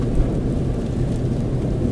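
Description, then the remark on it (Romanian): A steady, dense wash of rain with a deep low rumble beneath it, constant and fairly loud throughout, with no voices. “E, poate ar trebui să le aprinzi, mai ales că plouă și a ieșit din, din, uh, din București.”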